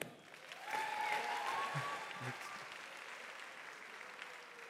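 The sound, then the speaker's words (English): An audience applauds steadily, a dense crackle of many hands clapping that swells early and holds at an even level, with a few brief tonal whistles or cheers mixed in. “Give them a hand.”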